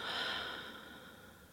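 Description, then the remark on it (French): A deep, airy breath drawn in through the nose, filling the belly and chest, then blown out through the mouth, starting strong and slowly fading over a second and a half, with no talking around it. “Pour commencer, prenez tout d'abord une profonde inspiration par le nez en gonflant le ventre et la poitrine et soufflez par la bouche.”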